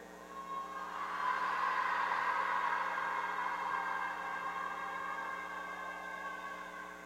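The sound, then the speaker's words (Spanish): A crowd of women in an audience lets out a long, sustained wailing cry together, imitating the cry of a woman in labor. It swells quickly and holds loud and steady for several seconds, with a siren-like ring to it. “¿Cómo se imaginan ustedes que sea el grito de guerra, el grito de parturienta?”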